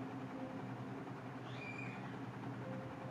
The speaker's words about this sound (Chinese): 风扇的声音好大声，没有办法，因为我不想开冷气。OK，你们听到风扇很大声吗？